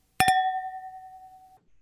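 glasses clinking

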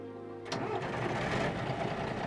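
bus engine starting

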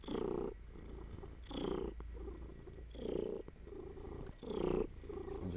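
cat purring

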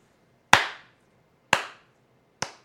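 hand clapping

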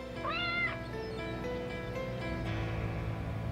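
cat meowing and caterwauling

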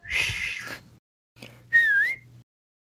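human whistling

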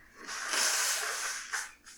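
nose blowing

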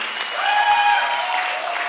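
audience clapping

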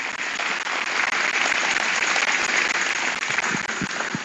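audience applauding

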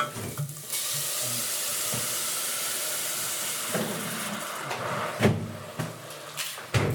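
onions sizzling

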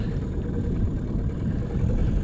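motorboat engine running

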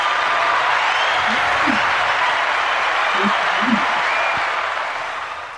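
audience applause sound effect

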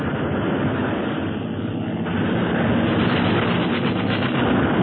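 airplane engine drone

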